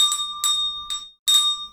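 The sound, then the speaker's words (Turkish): A small decorative souvenir bell with 'Bodrum' written on it rings with four quick shakes, each strike bright and metallic with a steady high tone that lingers briefly between strokes, fairly loud with no voices. “Çanı bir dinletebilir miyiz hocam?”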